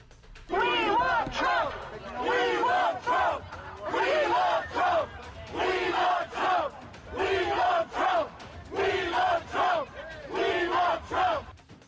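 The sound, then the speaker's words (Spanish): A large crowd outside a courthouse chants in unison, loud, steady phrases repeating roughly every second and a half, with many voices blending into a rousing, rhythmic roar throughout. “Vamos a escuchar un poco cómo se, eh, eh, teníamos el ambiente en ese momento, por favor.”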